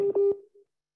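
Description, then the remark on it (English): A phone rings with a short electronic tone, a steady fairly loud beep that cuts off after about half a second and leaves a faint trailing echo. No one speaks. “Hold on, my phone ring.”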